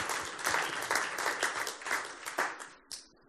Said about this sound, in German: Jetzt haben wir Gott einmal Applaus für das.